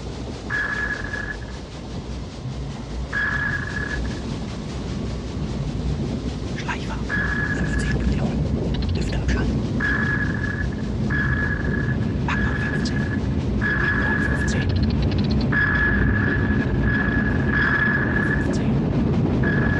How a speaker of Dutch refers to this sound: Maar ja, luister maar even naar wat pinggeluidjes uit Dasboot.